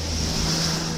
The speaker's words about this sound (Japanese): もう車のブーンで何も聞こえなかった